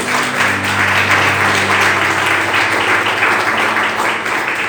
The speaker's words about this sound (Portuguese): Então, ah, você poderia aplaudir ao Senhor pela vida da sua igreja, né, irmão?